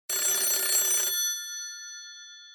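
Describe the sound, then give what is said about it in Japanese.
A single burst of a telephone bell ringing, loud, with a bright metallic jangle that cuts off after about a second and leaves a ringing tone fading away, introducing a shop's PR message delivered as an answering-machine message. No one speaks. “この番組ではお店の方からの PR メッセージが留守番電話という形で届きます。”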